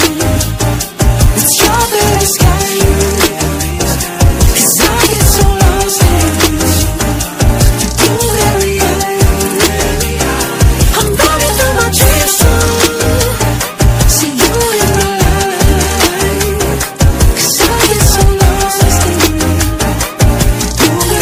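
A pop song plays loud and full throughout, with a steady driving beat, deep bass and sung vocal lines layered over the music, with no talking.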